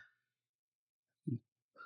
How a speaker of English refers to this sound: Hey, Biscuit, how about you shut your mouth, dude? What are you barking at?